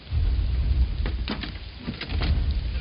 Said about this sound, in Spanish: Ian mete a Sara en la caravana y cierra la puerta despacio.